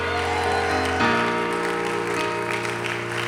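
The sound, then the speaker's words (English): An audience claps their hands in a steady, dense burst of applause lasting a few seconds, mixed with sustained musical tones underneath and no clear speech. “Come on, if you believe that, clap your hands for a moment and somebody shout yes.”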